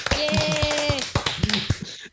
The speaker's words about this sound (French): Salve d'applaudissements, bravo!